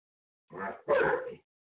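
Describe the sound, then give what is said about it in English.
Several dogs in the room make noise in two quick, fairly loud bursts, one right after the other, as they bother each other, with nobody talking over them. “it was dogs totally made me train lose my train of thought.”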